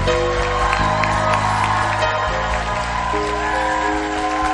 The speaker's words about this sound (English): Clapping, Clap. No, you are shouting. You are not clapping. Clap. I still can't hear the clap. It should be louder than your graduation.